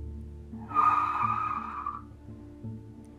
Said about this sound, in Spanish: De pronto, el coche se detuvo en un brusco frenazo.